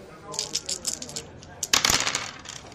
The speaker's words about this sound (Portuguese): Rola dois dados.